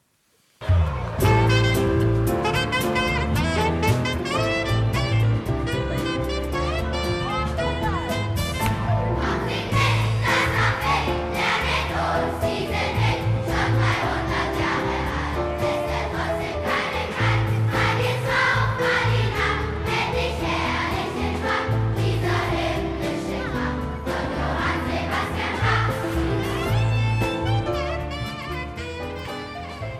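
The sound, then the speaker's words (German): A large children's choir of 200 to 300 third-graders from the SingBach project sings a Bach melody in a poppy arrangement over a full band with a pulsing bass, loud and continuous for the whole stretch before easing slightly at the end. “Aufsehen erregt hat ihr 2010 erstmal initiiertes Projekt Singbach, bei dem sie mit 200 bis 300 Drittklässlern unterschiedlichster Herkunft Bachsche Melodien sangen.”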